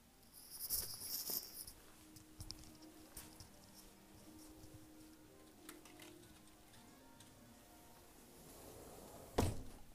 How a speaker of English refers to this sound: Oh, I hear some sounds outside. I better close the door.